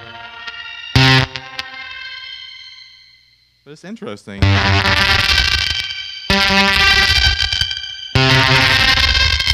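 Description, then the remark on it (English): An electric guitar runs through fuzz and shimmer effects: a ringing, harmonically rich chord fades out, then thick, saturated fuzzy bursts swell with glittering upper overtones. A voice briefly speaks. “I feel like I like the way the fuzz affects the shimmer more than I like the way the shimmer affects the fuzz.”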